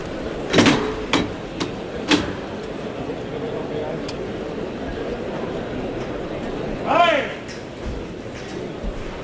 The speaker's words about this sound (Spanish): Y va a abrir la puerta de Toriles